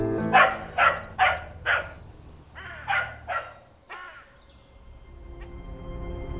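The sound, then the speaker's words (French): A dog barks repeatedly, seven sharp barks in an uneven rhythm, over a steady outdoor background with a faint high insect-like whine. “Le vert tendre des feuilles, les coccinelles rouges, ah, les roses, et le chien qui aboie.”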